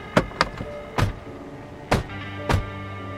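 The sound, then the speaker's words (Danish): Car doors of a Volvo slam shut in a quick, uneven series of about five solid thuds over a low steady background hum, at a spot by Gendarmstien in a forest area. No one speaks. “Og der kan man de så høre øh, de observatørerne bildørene smække og sådan noget.”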